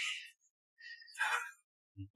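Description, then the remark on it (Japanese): A breathy yawn: a short airy intake, then a longer drawn-out exhale rising and fading, followed by a couple of brief low murmurs at the end. “あくびの音は消せ。”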